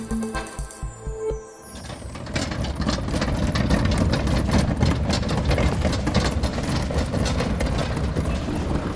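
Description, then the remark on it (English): Labelled eco waste bins being hauled away at the Roland Garros tennis tournament: a low engine rumble gives way to a loud, steady rattling clatter of bins rolling along, with rapid irregular knocks throughout and no voices. “That's the sound of uh, all the bins being taken away.”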